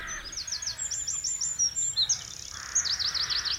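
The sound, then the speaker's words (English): A songbird sings in Whitburn in quick, bright phrases of high chirps and trills, with rapid repeated notes toward the end, over a soft outdoor hush with no voices. “I um, recorded some material about things like the hedgehogs that came into the garden and the various bird songs that I heard in Whitburn”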